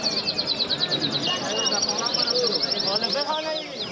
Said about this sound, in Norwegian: Små boder av leire står tett i tett, fylt opp med fuglebur i klokkeformede fasonger og fugler i alle regnbuens farger synger av full hals.